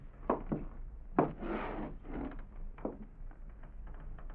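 Muffled footsteps of someone coming down a hallway outside a door thud along a hard floor, a loose uneven series of soft knocks and scuffs, fairly quiet against a low background hum, with no voices.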